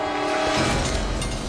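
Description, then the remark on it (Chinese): A subway train approaches along the tracks in a drama fight scene, with a loud, steady mechanical hum and sustained tones, and a deep rumble swells partway through as it draws in. No one speaks. “面对就剩一口气的对手，大石愣是想出了用地铁撞死他的天才想法，拖着小白的脚就把他甩到了铁轨上”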